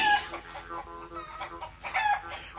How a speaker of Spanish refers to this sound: Un par de gallinas circulan cacareando en la cocina.